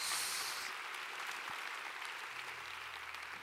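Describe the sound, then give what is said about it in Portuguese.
An audience applauds the Lord Jesus in the evening with sustained, dense clapping that holds steady throughout, a broad wash of hand claps with no voices standing out and a faint low hum underneath. “Se você recebe essa palavra, aplauda ao Senhor, diga eu recebo.”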